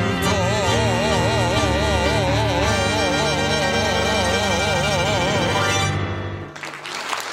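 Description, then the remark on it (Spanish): A sustained vocal note with vibrato over instrumental accompaniment fades out, and audience applause breaks out in the final second as a dense burst of clapping. “Acompaño los aplausos”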